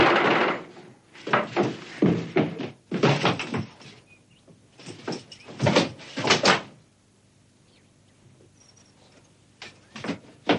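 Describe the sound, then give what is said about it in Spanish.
A wooden house door opening, with a series of rattling, scraping bursts spread over several seconds, then a quieter stretch and a few faint knocks at the end. No voices. “Entra toda prisa en la casa y ve que la puerta está abierta, pero dentro no hay nadie.”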